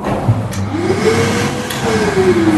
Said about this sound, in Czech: zapnu vysavač kompresor. Nevysaje ten písek? Rožne se, ano. A to, to je, prach jde pryč a písek se vrací, že pořád dokola.